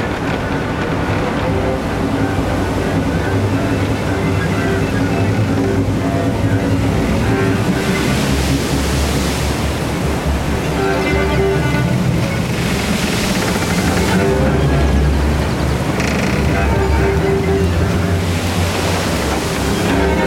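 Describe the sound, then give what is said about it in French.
Rough, agitated sea waves churn and crash continuously, a loud, dense roar of surf with repeated surges swelling and breaking, unbroken for the whole stretch, with no voices. “se lève et la mer s'agite.”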